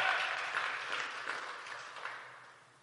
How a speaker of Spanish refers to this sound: da un aplauso fuerte al Señor.